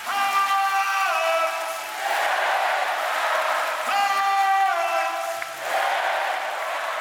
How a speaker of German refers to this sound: Insgesamt brandet der Torjubel 42 Mal auf und bei einem Treffer wird es ganz besonders laut.